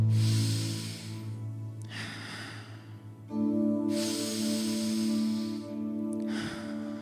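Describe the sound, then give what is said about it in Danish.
Two forceful breathing cycles of a breathing exercise, each a sharp, noisy inhale through the nose followed by a softer, relaxed, ordinary exhale, over a steady low humming drone. “Så det vil sige, at indåndingen er kraftig, og på udåndingen giver du bare slip og ånder almindeligt ud.”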